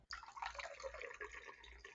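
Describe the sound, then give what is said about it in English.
Red Burgundy wine, a Pinot Noir and Gamay blend, pours steadily from the spout of a three-liter box into a glass, a continuous trickling stream with a bubbly, gurgling texture that runs for a couple of seconds without talk. “So just like give you a little.”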